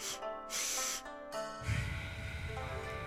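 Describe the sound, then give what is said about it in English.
Two quick, sharp, loud sniffs through the nose, followed by a long, steady, breathy exhale that trails on for over a second. “She should have just did two big sniffs through the nose and then a long exhale.”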